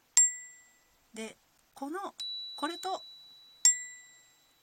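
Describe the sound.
A metal chime is struck twice, each strike ringing out bright and clear with a long, shimmering decay. Between the two strikes, a person speaks briefly.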